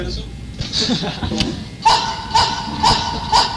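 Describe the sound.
Four short, evenly spaced dog barks ring out in a steady rhythm over a busy, noisy room with voices in the background.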